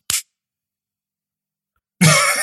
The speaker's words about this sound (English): what was that noise? The clicking noise. Yeah, uh, that's my ear. That's my AirPods what? case uh, closing.